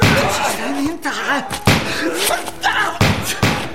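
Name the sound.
pistol gunshots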